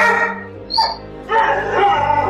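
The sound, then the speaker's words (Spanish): A dog barks and yips, a short sharp burst followed by a longer run of loud, whiny vocalizing, with no one speaking. “Es un perro chorro, como todos los K.”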